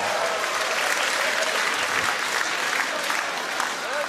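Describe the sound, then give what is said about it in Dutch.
A large crowd of CDA party supporters cheers and applauds loudly and continuously on Dutch national election night, a dense wash of clapping with scattered whoops and shouts rising above it, filling the whole space without a pause. “Beste CDA'ers, wat een geweldige avond. Juich maar even.”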